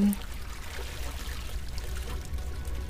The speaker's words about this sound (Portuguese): Deixa essa água cair em você.